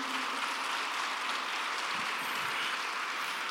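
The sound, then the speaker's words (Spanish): An audience applauds the Lord in the morning, a dense, even wash of many hands clapping at once that holds at the same level throughout, with no voices standing out. “Dale un aplauso fuerte al Señor esta mañana.”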